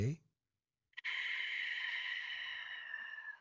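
After a brief vocal sound and a pause, a steady breath drawn through a constricted throat with the mouth closed gives a soft, hissing, snore-like rasp lasting a couple of seconds, as a breathing exercise with eyes closed.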